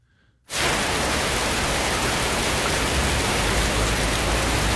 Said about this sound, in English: And uh, the number one uh, sound that people love to hear the most rain falling.